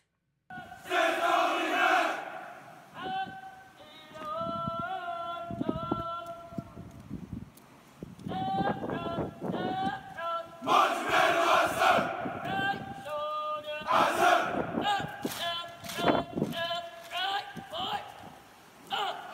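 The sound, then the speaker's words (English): Several military drill instructors bark out different rhythmic marching cadences at once, overlapping shouted calls and group responses, with faint tramping of feet beneath. “drill instructors who are calling, calling out different cadences all over the place, but you have to stay in tune to your drill instructor.”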